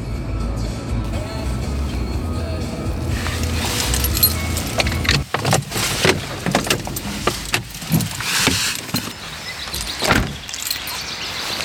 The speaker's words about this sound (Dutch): auto parkeert.